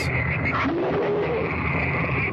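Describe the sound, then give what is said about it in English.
A low, rumbling animal growl, heard underwater during an attack on an octopus, that continues steadily throughout, rough and guttural with a faint wavering tone riding over it, fairly loud, with no talking. “They're growling. You always hear whales and octopus growling like that.”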